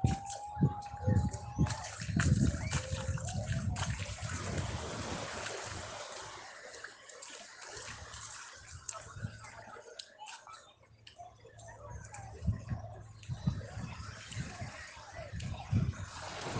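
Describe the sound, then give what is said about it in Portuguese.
Steady rushing sea surf at Barequeçaba beach fills the scene, with splashes and knocking bursts breaking through, and faint indistinct voices now and then beneath the wash of water. “tempo dos homens Confluindo, confluindo aí, cara, numa maravilhosa estadia na praia de Barequeçaba.”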